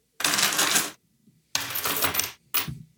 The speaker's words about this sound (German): Wonach klingt das? nach Geld, das auf einen Tisch fällt. Perfekt.